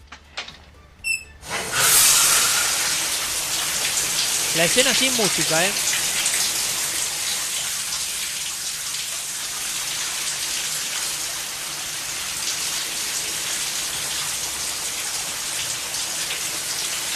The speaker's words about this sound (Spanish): se escucha la ducha. Acá ya había música, porque había música de suspenso.